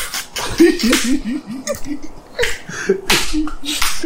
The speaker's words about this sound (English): That's how I'm slapping again.